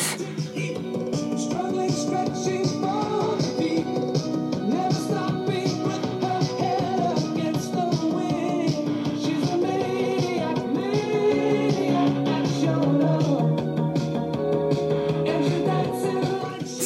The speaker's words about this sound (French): Un extrait de ma chanson préférée pour le 23 mars 2020.